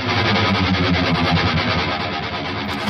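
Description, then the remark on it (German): A loud, heavily distorted musical jingle plays for a few seconds, a dense, steady wall of gritty tones: the 'Wheel of Pain' random-generator sound effect used to pick metal quiz games in the Metal Keller, with no talking over it. “Das ist eine Art Zufallsgenerator der am Ende immer eines meiner absoluten Lieblingsspiele ausspuckt.”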